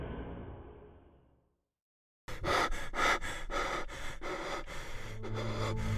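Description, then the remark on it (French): After a fading low rumble and a brief silence, a voice pants hard and fast, rapid ragged breaths in a steady rhythm, as someone who has woken with a start in panic catches their breath, at a camp in the middle of a forest. “Se réveillant en sursaut, paniqué, Yanis dut attendre plusieurs minutes avant de pouvoir reprendre complètement son souffle.”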